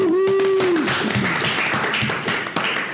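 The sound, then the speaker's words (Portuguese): An audience breaks into sustained, dense applause that holds steady for the full stretch, with a short whoop from someone in the crowd at the very start, clapping in favour of politician Aécio Neves going to jail. “Uma, uma, um aplauso pra ele ir pra cadeia, por favor.”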